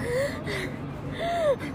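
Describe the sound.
A voice imitates panting: two quick, breathy gasps, each with a faint whistling edge, separated by a short pause. Close and fairly loud, with no other speech.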